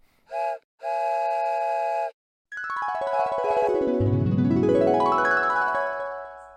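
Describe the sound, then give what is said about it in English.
A steam train whistle gives a short toot, then a longer steady blast, followed by a loud, drawn-out wail that bends in pitch over rhythmic chuffing. No one speaks. “Oh my god. You're a train.”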